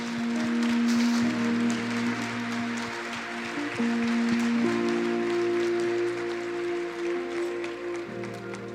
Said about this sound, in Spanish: Un aplauso para ellos.